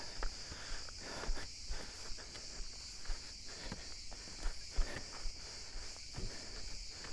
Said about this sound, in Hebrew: וכעת, שירת הצרצרים. הלהיט החדש של הצרצרים של יער יוקנעם.